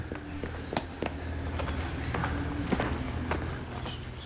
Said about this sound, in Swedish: På håll skymtade jag klungan med de andra passagerarna och sprang efter dem. Mina steg ekade i tunneln.